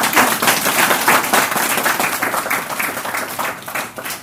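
An audience applauds steadily, a dense, continuous patter of many hands clapping at once, loud and sustained without pause for the whole stretch, with no voices standing out above it.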